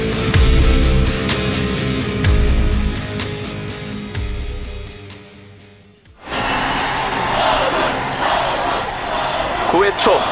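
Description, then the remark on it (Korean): A loud stadium crowd at a baseball game roars and cheers after about six seconds, following a stretch of steady music; the broad, noisy cheering stays sustained until the end. “네, 관중들도 이젠 일방적으로 유성을 응원하진 않는군요.”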